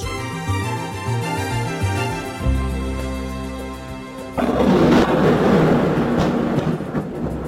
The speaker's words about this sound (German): Von diesem Geräusch wurden zuletzt etliche Moskauer geweckt eine Drohne über der russischen Hauptstadt.